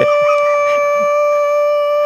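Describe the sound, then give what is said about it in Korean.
A voice imitates the siren an apartment security office sounds before a group broadcast, holding one loud, steady, mid-pitched tone for about two seconds with no talking around it. “이런 분들 오시면 이런 사이렌 소리 한번 내고서 하시거든요.”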